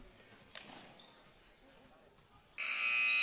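Arena crowd noise and chatter, then a loud, harsh game buzzer blares at the end of the third quarter and holds steadily through the final second, drowning out the background.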